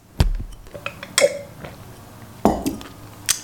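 Glasses clink in a toast: a few bright glassy clinks ring out at irregular moments, a couple with a short resonant tone, mixed with duller knocks of dishes or utensils. No one speaks.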